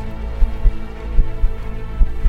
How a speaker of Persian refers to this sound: لابلای هر قدم و فش فش پوتینای پرعذابمون صدای گروم گروم قلبمون و دویدن تند خون تو رگای خودم